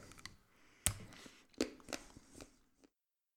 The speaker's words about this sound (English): And a bite of the dark chocolate.